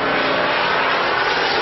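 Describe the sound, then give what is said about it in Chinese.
A steady, dense roar of Japanese bomber aircraft engines fills the whole clip, a broad droning rumble of planes passing overhead as they bomb the Nanjing shortwave radio station at Linggu Temple, with no pauses or voices. “鬼子的飞机来了，德章，飞机来了，快进来！”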